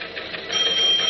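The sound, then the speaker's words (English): A teletype machine in the teletype room of the Daily Planet editorial office clatters as its keys print a news report in bright purple ink. The clatter is a dense, rapid, steady stream of mechanical ticks, with a thin high-pitched tone coming in partway through. No voices. “he reaches out and rips the long sheet of paper out of the machine just as the clatter of the keys stops”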